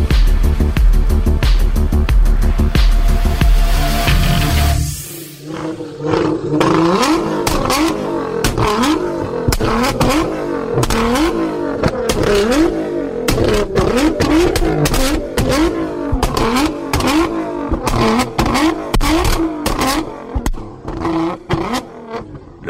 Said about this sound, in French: son que vous venez d'entendre est celui du V6 biturbo de la Nissan GTR lors d'une période de réchauffement avant qu'elle ne fasse son entrée sur le circuit.